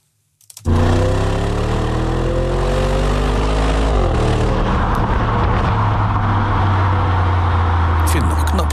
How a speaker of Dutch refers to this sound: dat dat, eh, dat motorgeluid er zo goed doorkomt. Ja, goed hè? Want eh, het is echt een stille auto van binnen.